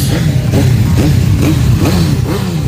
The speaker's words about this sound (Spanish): De todos los rincones del mundo, los amantes del motor y las dos ruedas se reúnen en Valladolid para hacer rugir sus motos.